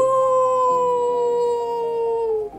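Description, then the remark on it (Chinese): The big bad wolf of a children's story lets out one long, loud howl as it comes to Brother Pig's thatched hut, holding a steady, mournful tone that slowly sinks in pitch before trailing off, with no other sounds around it. “呃，猪哥哥，大野狼来了啦！”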